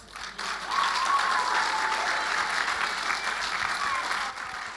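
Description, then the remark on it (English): A crowd applauds a speaker who has just finished a talk, a dense wash of clapping that swells quickly after a brief quiet start and holds at a strong, even level for several seconds before easing slightly. “Another round of applause, guys. Keep it going.”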